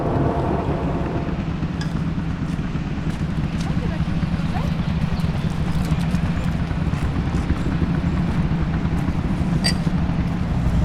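Old cars idle and rumble in a slow traffic jam on the Nationale 7 at Lapalisse, a dense, steady low drone of many motors, with faint clanks and revving throughout.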